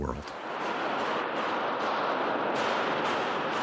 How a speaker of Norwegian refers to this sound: Skuddvekslingene inne i en av parlamentsbygningene var først nesten vanskelig å tro på. Det var her en gjerningsmann ble skutt og drept.